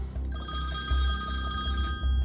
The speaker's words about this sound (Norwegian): så ringer mobilen.